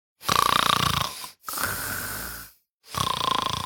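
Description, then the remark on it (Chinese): A man imitates his wife's loud snoring in three long rasping bursts: buzzing inhales alternating with a smoother, breathier exhale, separated by brief silences, with no speech. “但是每当夜深人静的时候，哎，你永远无法想象一个声线那么温柔的女子，打呼噜的声音比我还大。哎呦我的天哪！我给你们学学啊，”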